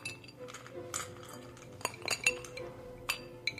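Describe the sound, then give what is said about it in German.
Glasses clink several times at irregular intervals with bright, ringing high tones as drinks change hands and are topped up, over a low steady murmur of background noise in a large room. “Und unter anderem hört ihr auch, dass einige Getränke irgendwie äh, den Besitzer immer mal wieder wechseln, nachgegossen wird.”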